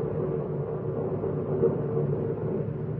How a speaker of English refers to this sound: Start the car and drive off. Down the highway into the darkness.